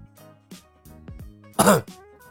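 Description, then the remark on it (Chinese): A single short, loud cough bursts out near the end, preceded by quieter throat noises and low murmuring sounds; no clear speech. A man coughs once and steps forward from a crowd. “苗壮咳嗽一声，跃众而出：“诸位，我能不能说两句？”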